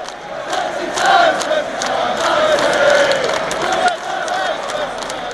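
A large crowd of Manchester United fans at Old Trafford in Salford, England, sings together in a sustained, loud chant celebrating the club's 20 league titles, echoing through the open stadium, with many voices blending into one continuous song and occasional shouts rising above.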